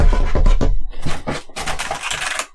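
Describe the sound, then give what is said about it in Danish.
A man rummaging through old tools in a shed while looking for a container, among them old files, old pliers and a badly rusted saw, with a busy, irregular run of clattering, knocking and scraping of hard wooden and metal objects, fairly loud and continuous, with no one talking. “Bok, bok, bok, bok, bok, bok står han derinde, og han rodede, og han rumsterede.”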